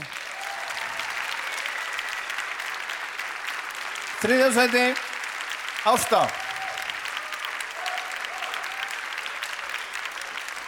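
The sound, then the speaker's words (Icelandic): Steady applause from an audience in a hall, clapping for a group of girls, a dense wash of clapping throughout with two brief bursts of a voice speaking over it. “og þið sem eru í salunum geti klappa fyrir þeim á meðan”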